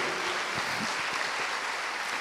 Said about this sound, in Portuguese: Todos podem aplaudir o Senhor por isso, que Aleluia! Aleluia!